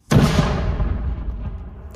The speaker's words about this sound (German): Das war eine selbstgebaute Bombe. Die ist im Sommer 2021 auf einem stillgelegten Kasernengelände in der Nähe von Potsdam in die Luft gegangen.